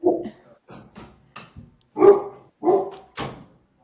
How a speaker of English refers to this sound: who let the dog out? do you? Is that your Ridgeback? Yes.